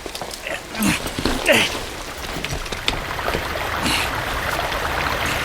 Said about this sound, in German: Der Wasserfall ist natürlich ein prädestinierter Ort für ein Versteck.